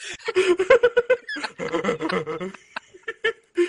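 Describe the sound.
A voice imitates a rapper's record scratch, going 'wiki wiki', with quick, choppy bursts in rapid succession, fairly loud, swelling into a denser flurry before trailing off into a few short yelps.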